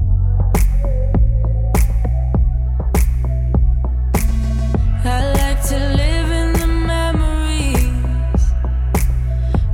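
A song plays loudly, with a steady thumping beat, deep sustained bass, and layered melodic tones that swell into a brighter, busier passage halfway through.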